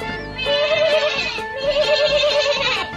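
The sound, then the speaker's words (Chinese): A sheep bleats twice in a row, each call a loud, wavering, nasal baa lasting about a second with a quivering tremolo, and no voices around it. “绵羊咩咩叫”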